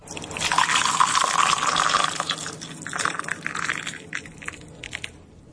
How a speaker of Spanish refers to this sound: La abuela calienta un poco de agua y la echa en la tetera.